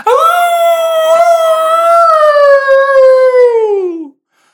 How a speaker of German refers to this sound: Ah, und während sich das Tor öffnet, hörst du ein grauenhaft lautes Heulen.